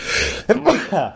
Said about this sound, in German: Moment, Jetzt muss ich niesen.